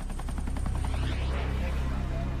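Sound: explosions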